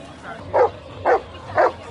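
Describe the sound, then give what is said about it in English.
Golden retrievers at a dog wedding at the Glam Dogs Show and Olympiad in Mumbai bark three times in an even rhythm, short mid-pitched woofs rising clearly above a low, steady background hum. “Eventually, the golden retrievers calm down and accept the Lord.”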